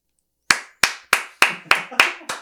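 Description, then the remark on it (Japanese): A steady run of seven sharp, crisp hand claps at a brisk, even pace, each one bright and snappy with a quick decay, and no voices. “何の拍手か分かりませんけども。”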